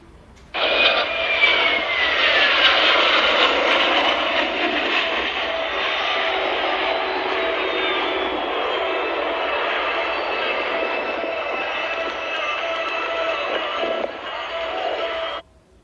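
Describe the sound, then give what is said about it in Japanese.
A jet-engined trainer aircraft flies past at about 600 to 650 km/h at an altitude of 150 meters, a loud, sustained engine rush with a high-pitched whine that sweeps downward as it passes, holding steady for about fifteen seconds before cutting off. “あと次はね、あの、時速650キロぐらい、600キロ超えた状態で、えー、高度150メーターを、えー、フライパスした時の、まあ、ジェットエンジン積んでるんですけど、まあ、練習機って呼ばれるタイプのものなんですけど、えー、これの、ね、エンジン音ちょっと聞いてみたいと思います。”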